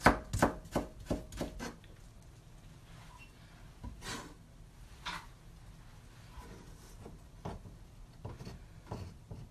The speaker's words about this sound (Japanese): なんか今黄色い人参切ってるんですけど千切りになんかすごい千切りした後のこう生姜みたいに見えます生姜の千切りしたみたい